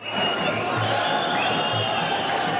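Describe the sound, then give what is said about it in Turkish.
A large crowd cheers and shouts continuously at a soldier send-off ceremony in a bus terminal, a dense, loud roar of many voices with high-pitched whoops and yells layered on top, sustained without a break. “Evde kalın, sosyal mesafeyi dikkate alın uyarılarını hiçe sayanlar otobüs terminallerine akın etti işte asker uğurlama için otobüs terminallerindeki kıyamet kalabalık”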